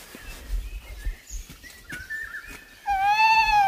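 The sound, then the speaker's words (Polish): A single drawn-out, wheezy call from a young tawny owl, rising then sliding slightly down in pitch, comes in loud near the end after a stretch of faint rustling and quiet background noise. “Jeszcze chwilę posłuchajmy tego puszczyka i przemieszczamy się dalej.”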